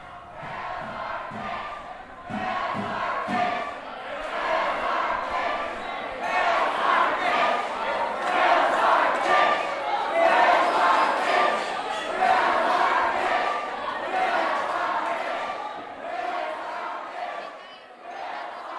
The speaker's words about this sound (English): It is about 11:30 p.m. on Wednesday, May 9th. Lift's release is happening in about a half hour, and I'm standing right outside of Ida Noyes, and I'm about to walk in. You can already hear people chanting from here.